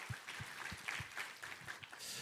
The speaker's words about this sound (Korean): 할렐루야 우리 하나님께 감사와 영광의 박수 올려드리겠습니다.